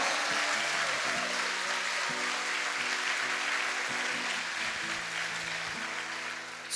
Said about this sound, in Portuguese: Se essas palmas são para Jesus, podia ser melhor. Podia ser melhor.